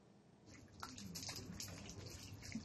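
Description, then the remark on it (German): Splashing of cold water, a few irregular splashes and trickles as a twelve-year-old boy in a refugee camp in Lebanon scoops and throws water on himself to wake up, at moderate loudness with no one speaking. “Kaltes Wasser, um wach zu werden.”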